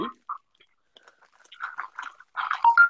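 Wet, irregular chewing with a full mouth: soft smacking and crunchy bursts, sparse at first, then growing denser and louder toward the end.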